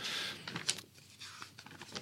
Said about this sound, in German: Es raschelt.